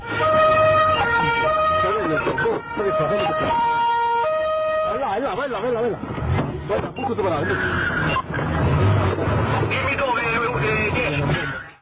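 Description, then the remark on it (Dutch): A police car siren alternates between two steady tones for the first few seconds, loud, then fades into a busy stretch of talking voices and street noise. “Nou, dat was mee op een politieauto.”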